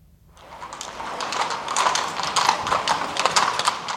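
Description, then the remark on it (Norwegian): Horse hooves clip-clop steadily on a hard street in Vienna, Austria, from a horse-drawn carriage carrying tourists through the streets, with a brisk, even rhythm that grows slightly louder. “I hest og kjerre blir turistene kjørte gjennom gatene og slåpna av utenfor slottet Hofborg midt i Wien.”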